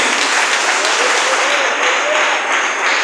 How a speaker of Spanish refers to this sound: Denle un aplauso, señor hermano, en esta hora.